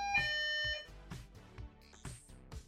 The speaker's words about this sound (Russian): кто-то звонит, поэтому я его прерываю с его историей